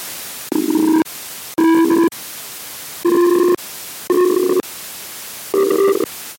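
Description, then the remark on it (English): A radio telescope signal from space, picked up by a big radio dish pointed at the sky: five buzzy, droning tone bursts, each about half a second to a second long, rising out of steady static hiss at an uneven pace, with no voices. “pointed at the sky and it picked up a signal that sounded like it came from another civilization in another star system.”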